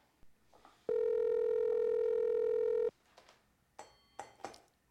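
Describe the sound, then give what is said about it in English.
A loud, steady telephone tone drones for about two seconds, then cuts off, followed by a few short clicks and clatters as the call connects. No one speaks. “All right, let's give him a call.”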